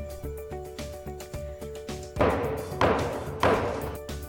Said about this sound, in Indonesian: OMG, jijik, no bukan gue itu bunyi ketukan palu DPR yang ngesain RUU Omnibus Law. Tepat pada tanggal 5 Oktober 2020, RUU Cipta telah sah menjadi undang-undang.